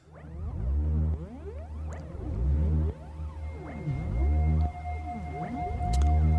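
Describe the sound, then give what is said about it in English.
Eerie synthesizer music made from a fetus's electromagnetic impulses, picked up by electrodes and converted to MIDI, with rich harmonic tones that repeatedly swoop down and glide back up, sounding whale-like, over a steady low drone and a thin sustained high note, continuous and fairly loud. “Electrodes receive electromagnetic impulses that are transmitted into MIDI and then hooked up to synthesizers.”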